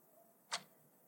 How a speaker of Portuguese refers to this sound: Irrita-me o som da condescendência. Irrita-me o tic-tac do relógio enquanto espero por ti.